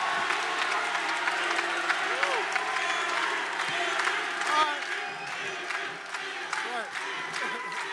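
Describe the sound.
A live crowd applauds steadily and densely for several seconds, with scattered cheers and voices rising over the broad, sustained clapping.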